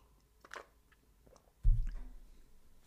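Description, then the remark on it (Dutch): A quiet sip and short slurp of hot sage tea, followed a moment later by a dull, low thud, with no talking. “Even wat thee drinken, salie-thee vandaag.”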